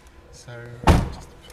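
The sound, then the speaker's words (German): The door of a blue Honda Civic swings and shuts with a solid thunk as someone gets in, preceded by a brief creak or hum and followed by quiet rustling as the sound fades; the car is parked at the left roadside in England. “Ich steige in einen blauen Honda Civic.”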